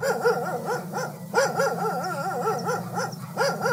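A dog at an animal shelter in Santa Barbara County vocalizes in a continuous run of warbling, wavering yowls and bark-like cries, rising and falling rapidly for several seconds with a brief pause midway.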